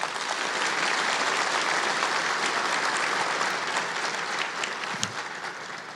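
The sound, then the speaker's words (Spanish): An audience at a church service applauds steadily, giving a round of applause to Jesus, a dense, even wash of many hands clapping at a constant loudness throughout, with no one speaking over it. “Dar un aplauso a Jesús.”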